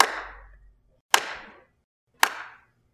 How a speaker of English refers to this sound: They're applauding as you go back behind the stage, and the applauding starts to fade out and filter down to just a single.